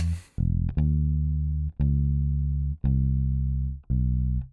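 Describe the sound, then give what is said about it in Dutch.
A dark, heavy rock guitar riff of low, distorted chords, each struck hard and left ringing for about a second before the next, loud with no voices. “Dat is gewoon, dat klinkt zo ja, zeg gerust Doomy. Dat is een duister nummer is dat.”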